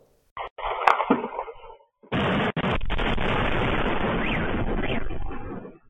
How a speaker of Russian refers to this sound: Утром 22 марта взрывы были слышны в Севастополе. И такой силы, что в зданиях дрожали стекла.